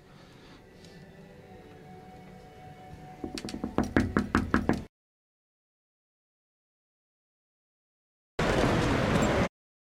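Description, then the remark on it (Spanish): A run of sharp knocks and clatter, speeding up over a couple of seconds, as chairs are moved and bumped, then silence and a short burst of rough noise. No voices. “Estaban moviendo sillas.”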